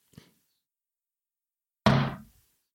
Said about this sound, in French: Vous allez taper sur votre porte vitrée pour nous faire une belle note de basse.